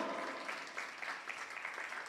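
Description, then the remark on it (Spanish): A crowd claps steadily for the Lord during a Spanish-language sermon, a dense, continuous wash of applause, moderately loud and sustained without pause, with no voices standing out. “Amén, gloria a Dios, el aplauso es para el Señor.”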